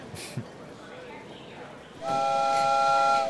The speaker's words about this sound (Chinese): 快上去吧，火车就要开了。